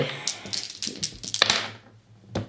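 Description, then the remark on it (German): Dice are rolled again in a game, rattling and clattering across a hard surface in a quick burst of sharp clicks, settling after a moment before one last tap; fairly loud, with no talking. “äh, ja, dann würde ich glaube ich auch nochmal neu würfeln.”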